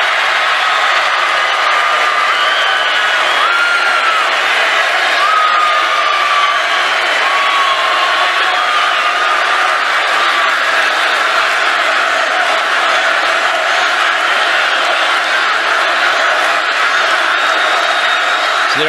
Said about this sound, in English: crowd chanting "Lock her up."